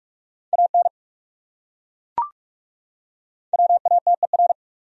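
Rapid Morse code beeping at 45 words per minute, sending common English words, in a steady mid-pitched tone: a quick burst of dots and dashes, a pause broken by a single sharp click, then a longer fast run of characters.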